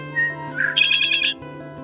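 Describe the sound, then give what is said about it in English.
A red-winged blackbird gives a single harsh, buzzing trill, loud, rising from a brief note into a rapid rattling burst lasting about a second, over a steady low hum. “This week's featured roast is Red Winged Medium Roast, and who better to ask about this quality blend than a real expert, a Red Winged Blackbird itself?”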